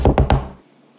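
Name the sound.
knocking on a door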